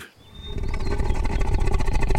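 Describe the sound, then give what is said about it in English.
A loud, rough snore with a roaring, growling rumble from someone sleeping in a forest, rattling in quick pulses and held steady for a couple of seconds, with no talking over it. “and as soon as the snoring started, the monkeys again crept up to Barong.”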